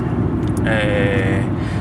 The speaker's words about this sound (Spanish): pues estoy conduciendo. Voy por la M50 ahora mismo a 96 km por hora. Conducción eficiente. Voy en el Passat, un coche que tiene 22 años, camino de 23